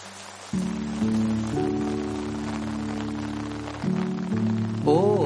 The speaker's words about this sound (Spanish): cuánta falta nos hacía escuchar ese sonido de la lluvia, sobre todo en días como hoy, entrando en el otoño donde poco a poco empezamos a sentir el frío